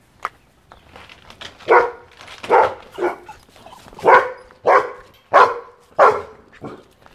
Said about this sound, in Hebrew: צליל הכלב שמאחורי גדר וצליל הכלב שמחוץ לגדר.